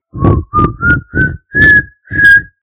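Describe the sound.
A whistled rendition of the old folk song "Kočka leze dírou", whistled to parrots in a bird breeder's aviaries: six distinct, breathy notes, each held briefly and stepping gradually higher in pitch, clear and fairly loud with no talking.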